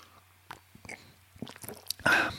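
Loose Sonnentor Glückstee being poured and sipped: scattered soft clicks and small wet slurps, then a brief, louder rush of liquid at the end, with no one talking.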